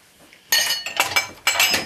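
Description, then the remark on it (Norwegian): Cups and glasses being set into a pulled-out dishwasher rack: a few sharp clinks and rattles in quick bursts, bright and fairly loud, with brief pauses between, no talking. “I don't know, just you have to pull this and put the cups or glasses here”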